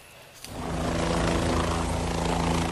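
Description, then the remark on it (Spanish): A helicopter evacuating people wounded in armed clashes in Pinos, Zacatecas state, Mexico, roars in after a brief quiet moment, its steady rotor thrum and engine drone loud, holding strong as it passes overhead with no one speaking. “Ante la intensidad de los ataques, tuvieron que evacuar en helicóptero a los heridos en varios enfrentamientos con sicarios del crimen organizado en Pinos, en el estado mexicano de Zacatecas.”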